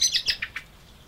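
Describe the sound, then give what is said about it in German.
A quick series of high, thin chirps from chicks that have flown out of the birdhouses and hop through a garden, five or six short calls in close succession, bright against a quiet outdoor background. “Vor einigen Tagen sind die ganzen Küken aus den Vogelhäuschen geflogen und anschließend durch den Garten gehüpft.”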